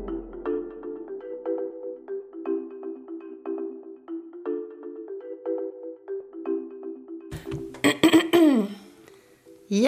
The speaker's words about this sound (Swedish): och med den harklingen drar vi väl igång